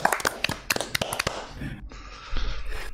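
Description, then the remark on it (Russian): A brief round of hand clapping at the end of a livestream, applauding the viewers: quick, irregular sharp claps from a few people, fading out after about a second, followed by a steady low hiss. “И у нас есть традиция, мы обычно в конце стрима аплодируем всем.”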